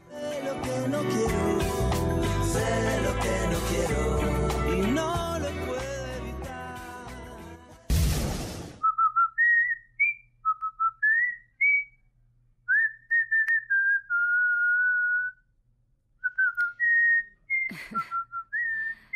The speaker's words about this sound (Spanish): Eh, vamos a hablar, eso sí, sobre silbidos, porque nuestro marinero de la historia sonora es muy famoso, particularmente por su, por su silbido. Tiene un chiflido muy particular.